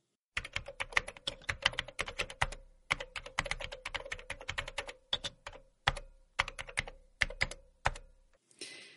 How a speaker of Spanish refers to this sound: ¿Qué te parece el sonido de un teclado recibiendo pulsaciones a una buena velocidad y ritmo? Es un sonido extraordinario, ¿o no te parece?